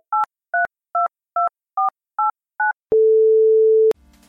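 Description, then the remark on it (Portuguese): Seven short, crisp telephone keypad tones beep in a steady, even rhythm, then a single flat tone holds for about a second before a faint click and hiss. No one speaks. “Passei a mão no telefone.”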